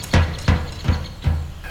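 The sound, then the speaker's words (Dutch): A woodpecker hammering at wood: five sharp, hollow knocks spaced evenly about two or three per second, each a brief dry thud, with no voices present. “dan lijkt het alsof die specht daar een metafoor voor is.”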